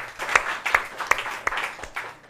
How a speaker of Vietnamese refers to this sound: chúng ta cho một tràng à, vỗ tay chào mừng anh chị